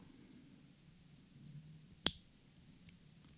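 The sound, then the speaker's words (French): A jewelry ratchet clasp gives one sharp click against quiet background hum, followed a moment later by a much fainter second tick. No one speaks. “Alors justement, tu parlais de fermoir à cliquet, j'en ai amené un. Vous n'allez pas le voir, mais vous allez l'entendre.”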